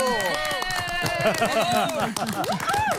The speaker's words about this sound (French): Vous me voyez applaudir, on, applaudira pour vous aussi, on le refait. Bravo à cette mère, bravo